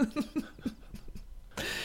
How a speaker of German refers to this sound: da knurrt ein Magen.